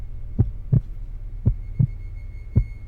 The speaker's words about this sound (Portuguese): A única coisa que eu podia sentir era meu coração batendo rapidamente.